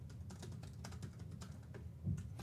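Rapid, steady clatter of fingers typing out a tweet on a computer keyboard, fairly loud, with a busy murmur in the background and no one speaking.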